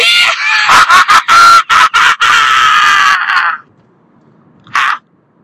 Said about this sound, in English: long weekend primal scream for you. So what you're going to want to do is perhaps turn down your gramophone because, of course, I assume you're listening on a gramophone. You weirdo and uh, I'm just going to let her fly. Here we go.